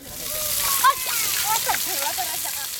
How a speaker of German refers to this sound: An einem Wasserloch rund 20 Fahrtminuten entfernt herrscht Hochbetrieb. Kinder baden, Frauen waschen, Ziegen trinken